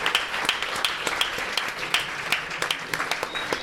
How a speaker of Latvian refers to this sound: Aplaudēsim sievietēm, fiks. Paldies, ka atnācāt.